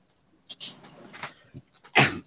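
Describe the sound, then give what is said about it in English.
A dog makes a few short, restless vocal bursts with whiny, whimpering tones, ending in one louder bark-like yelp. No one speaks. “Would you quit. Damn it, dog. Lay down.”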